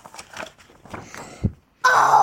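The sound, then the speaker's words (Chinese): A voice imitates a lion's roar in a narrated children's story: a loud, sustained, raspy cry that bursts in suddenly after a short pause, preceded by soft shuffling and low murmuring sounds. “啊，这颗糖果原来可以发出狮子的吼叫，就能发出狮子的吼叫，嗷！”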